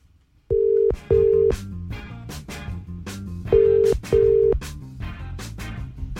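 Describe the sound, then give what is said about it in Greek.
A telephone ringing tone sounds in two double bursts as a phone call is placed, steady and fairly loud, with rhythmic background music beating underneath the whole time and no one speaking. “Πάμε να πάρουμε, παιδιά, τη Δήμητρα από την Βασιλική. Πρώτα τηλέφωνο.”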